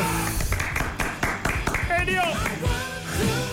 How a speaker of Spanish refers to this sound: Es aplauso.